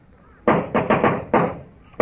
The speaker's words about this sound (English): No, it's the ghost. Coming for me. In a minute, he'll knock on that door. If you're going to knock, knock.